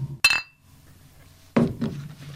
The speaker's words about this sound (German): Wir können ja mal kurz anstoßen, wenigstens, wenn es nicht mit Sekt, dann wenigstens mit Schorle oder ja, so. Ja, ne? genau. Prost, ne?